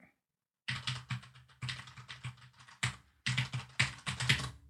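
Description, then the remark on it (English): Rapid, loud clacking of computer keys in uneven bursts, with a couple of brief pauses between flurries of typing, with no voices. “Clack, clack, clack, clack, clack, clack, clack, Oh, that's my keyboard.”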